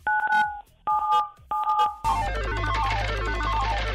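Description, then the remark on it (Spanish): Three short bursts of steady two-pitch keypad dialing tones, each with a few quick beeps, as 97.7 is dialed to activate a radio prize roulette, followed by a dense wash of rapidly shifting electronic tones over a low hum. “digita el 97.7 para que se active nuestra ruleta regaladora.”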